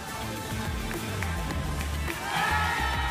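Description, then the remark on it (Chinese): A golf gallery cheers and claps in a steady, dense roar that swells slightly toward the end, with scattered sharp claps and a few voices, after American player Brian Gay's eagle on the 18th hole, his second shot stopping on the green and rolling back, during a windy, rainy Sunday final round. “漂亮的 Eagle 博得全场观众欢呼。”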